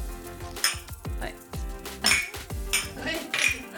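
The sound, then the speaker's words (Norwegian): Three people clink glasses together in a toast, four or five bright, ringing taps spaced irregularly over a few seconds, fairly loud against a steady low background. “Skål. Skål.”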